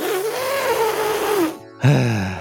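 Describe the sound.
A loud voice does an elephant impression: a long, wavering trumpet-like blare that rises and falls, then a brief pause and a shorter, lower honk.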